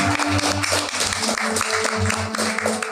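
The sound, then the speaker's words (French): An audience applauds the character Ouvre Moutarde steadily for about three seconds, a dense, loud wash of clapping with a low, rhythmic pulsing tone running underneath. “Une bonne applaudissement pour Ouvre Moutarde.”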